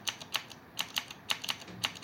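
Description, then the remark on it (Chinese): Tactile mechanical keyboard keys being typed, about ten sharp, bright clacks in an uneven rhythm with short pauses between small bursts, heard alone with no voices. “接键盘通常分为有那种二段感的轴体，比如说青轴、啊绿轴、奶轴这种，它是二段感的。啊，大概敲击起来的声音就是类似这种”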